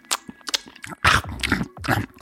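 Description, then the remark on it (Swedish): Loud, wet, exaggerated chewing of gum, with smacking, squishy bites and crunchy mouth noises repeating in an uneven rhythm, no talking. “Ja, ja, så kanske man inte låter när man tuggar det här.”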